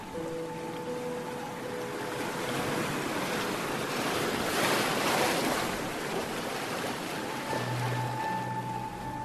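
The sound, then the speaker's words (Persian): Ocean waves break on the shore, a steady wash of surf that swells into a louder crash midway before easing back, with a faint tonal hum underneath and no voices. “کاش حداقل یه موج میرسید تا اینجا همشو پاک میکرد”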